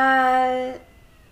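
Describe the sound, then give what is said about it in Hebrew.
A single steady, tonal meow from a cat being let in, fairly loud, holding one pitch for under a second before cutting off into a quiet background, with no talking. “נכניס רגע את החתול שלו.”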